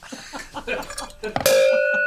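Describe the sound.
After a moment of voices talking, a single loud metallic clang rings out: a cowbell struck once, its bright tone sustaining to the end.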